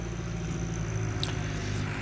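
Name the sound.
tractor passing by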